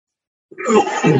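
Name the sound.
sneeze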